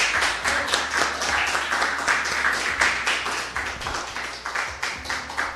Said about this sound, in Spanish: sí, a Carmen Sánchez Viamonte, que está con nosotros, a quien pido un aplauso muy fuerte.